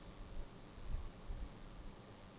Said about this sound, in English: Sorry, I can't hear with the air conditioner.